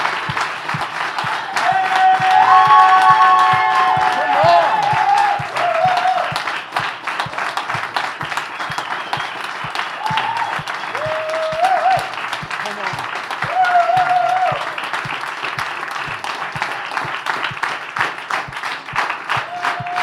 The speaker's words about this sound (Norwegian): Så jeg lurte på, kunne vi, kunne vi bare tatt og reist oss? Så kunne vi bare klappet, bare hedret dem? Kunne vi gjort det? Come on!